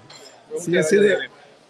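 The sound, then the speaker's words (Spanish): A couple of quick metallic clinks, like utensils knocking together, happen over murmured talk and a faint background hum. “Perdón, estamos ocupando muchos cubiertos. Siento como que ensuciamos mucho.”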